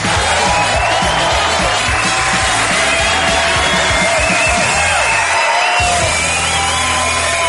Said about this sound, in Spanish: Y ahora os pido, por favor, un fuerte aplauso